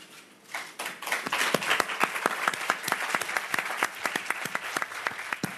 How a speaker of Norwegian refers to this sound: Michael Douglas fikk altså applaus under pressekonferansen i Cannes da han takka Steven Soderberg og de andre for å vente på han mens han kjempa mot kreftsykdommen.